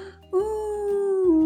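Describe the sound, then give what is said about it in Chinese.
A voice imitates a long, mournful, heart-rending wailing cry coming from a tower prison: one sustained, steady-pitched "ooo" lasting over a second, fairly loud, sagging slightly in pitch at the end. “撕心裂肺的哭声从塔楼监狱里传出。”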